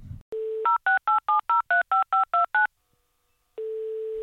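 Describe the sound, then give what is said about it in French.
A steady dial tone, then ten quick keypad beeps in an even rhythm, each a clean two-tone chirp, followed by a pause and the dial tone returning, as someone dials a phone to call a man. Clear, no voices. “Septembre arrive, je prends mon téléphone et j'appelle le mec.”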